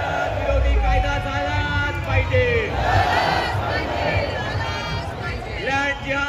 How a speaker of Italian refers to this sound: Nel video che sentite si vede una marea arancione, che è il colore dell'estremismo indù. I cori sono gli stessi, Yai Shri Ram, Bharat Mata Ki Yai, tutto il repertorio del nazionalismo.